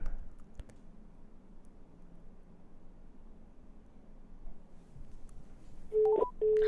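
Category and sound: signal or alarm, phone call being dialed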